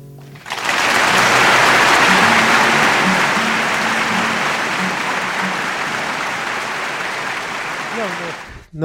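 Sustained crowd applause at the end of a live concert recording, a dense, steady roar of clapping that rises quickly, holds loud for several seconds, then begins to thin as it fades toward the end.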